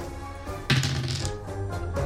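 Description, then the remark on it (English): Two dice are re-rolled and clatter and tumble across a hard surface, a burst of sharp plastic clicks and rattles that tapers into a few lighter taps, over a low background hum. “Go ahead and roll um, two dice, re-roll two dice, um, anything but ones or 6s let We'll do two of the fives.”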